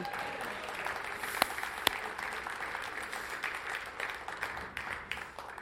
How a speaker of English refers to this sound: Thank you, Jesus. You can clap on that one. That's okay.